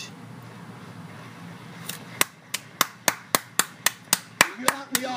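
After a couple of seconds of faint room murmur, about a dozen sharp, evenly spaced hand claps ring out in a steady rhythm, an audience clapping together at a modest volume.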